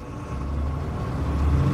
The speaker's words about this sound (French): La voiture a alors débuté la montée. Les routes enlacées qui font un peu mal au cœur.